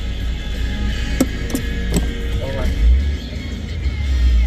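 A driver stuck in a long traffic queue pulls the car handbrake, giving a few sharp ratcheting clicks over the steady low rumble of an idling vehicle interior.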